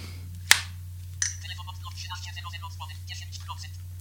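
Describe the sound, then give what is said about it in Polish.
A mobile phone's slide-out keyboard snaps open with a sharp click, followed by a second softer click, then a person starts talking over a steady low hum. “Otwieramy telefon.”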